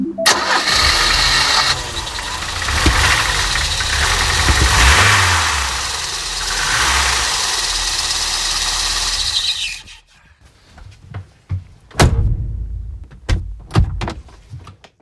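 A vintage car's engine cranks and catches, then runs with a loud, rough idle for about ten seconds before cutting off, followed by a few sharp knocks like a door closing, in St. Pauli.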